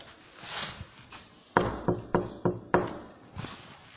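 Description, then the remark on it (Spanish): Five sharp knocks on a door in a quick, slightly uneven sequence, fairly loud, followed by a fainter tap against a quiet background hiss; a shopkeeper knocking on the door to announce a phone call. “O sea, así así sonaba mi teléfono, como un, sonido de, de puerta”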